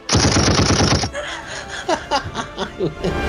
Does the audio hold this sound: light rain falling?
no